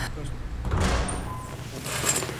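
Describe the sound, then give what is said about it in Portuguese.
A door swings shut with a soft, dull thud partway through, followed by a brief rattle of movement against a low hum of room noise. “Fecha a porta.”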